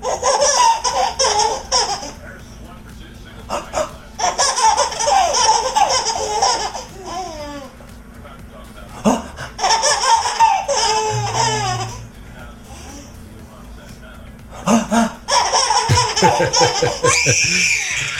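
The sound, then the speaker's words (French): A compilation of home videos filmed on camcorders: babies giggle and belly-laugh in a string of short, separate bursts, one cut after another, with brief quieter gaps and a little background chatter between the laughing spells. “Alors voici des rires et des catastrophes de petits bébés.”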